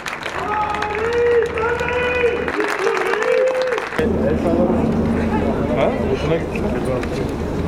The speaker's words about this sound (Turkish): Tören başladı. Erdoğan'a kalabalıktan sloganlar, alkışlar yükseldi.